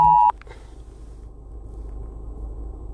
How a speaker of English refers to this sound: That noise was an amber alert.